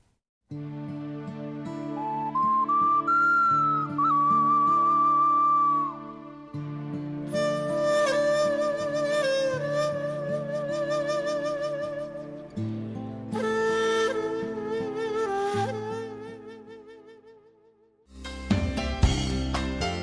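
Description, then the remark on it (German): A melodic instrumental song plays alone, a bright lead line gliding over sustained harmonies and steady bass, building in layers across several sections before a louder, denser passage near the end. “Hören wollen wir aber gleich etwas Musik.”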